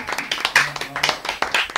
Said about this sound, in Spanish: Oye, un aplauso para el técnico de sonido que tenemos